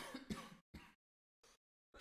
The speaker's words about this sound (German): das ist der Husten